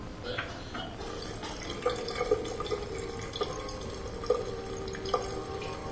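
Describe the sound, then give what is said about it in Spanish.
Kruger turns on a washbasin tap: a steady hiss of flowing water, with scattered splashes and drips landing at irregular moments. No one speaks. “Kruger abre el grifo.”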